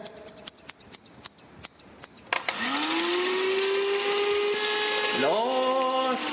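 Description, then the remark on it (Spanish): A quick, steady run of about ten crisp scissor snips, followed by a loud electric motor that whirs up to a sustained high whine and briefly revs again near the end. “Alcánzame las tijeras.”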